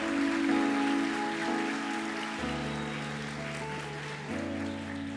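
An audience at a church service applauding in response to the preacher's call to applaud God as hard as they can, a steady, dense wash of clapping, with sustained keyboard chords playing underneath and changing twice. No one speaks.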